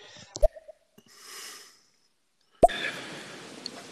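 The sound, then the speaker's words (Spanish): Snoring: a sharp snort, a drawn-out breathy inhale, then a loud sudden rattling exhale that trails off roughly. No one speaks. “Se oyen ronquidos por ahí.”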